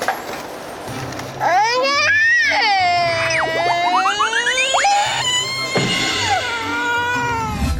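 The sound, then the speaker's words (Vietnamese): A young child wails loudly and continuously in several long, rising and falling cries, with brief breaths between sobs. “Ủa gì vậy? Tiếng khóc này là sao?”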